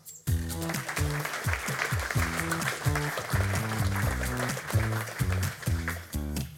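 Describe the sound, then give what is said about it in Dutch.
Steady, dense audience applause for the evening's guest fills the whole stretch, mixed with loud rhythmic music carrying a pulsing low bass line. No one speaks. “Mag ik een groot applaus voor”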